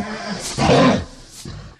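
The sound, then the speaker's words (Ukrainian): A person imitates a lion's roar to show how a real lion roars, recording it to send to a girl: a loud, raspy, growling burst followed by a shorter, quieter second growl, with no other sounds. “От як насправді Лев речить.”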